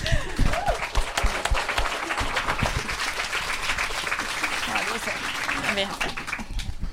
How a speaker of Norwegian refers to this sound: Klapp for det.